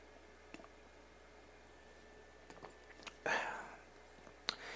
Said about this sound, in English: Take a sip real quick.